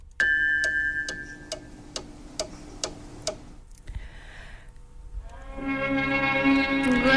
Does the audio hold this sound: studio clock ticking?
yes